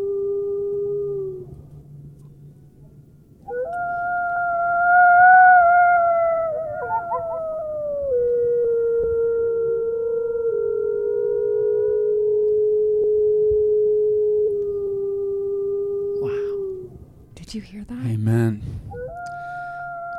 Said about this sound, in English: And hear the sound of the Mexican gray wolf.